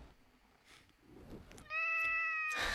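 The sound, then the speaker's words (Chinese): A cat named Wang Xiaoming, darting around in front of a microphone, lets out a single loud, drawn-out meow with a steady, tonal pitch, coming after a second and a half of faint rustling and soft knocks. “王小明一直在这个话筒，王老师话筒面前窜来窜去，也想对此发表一些看法。”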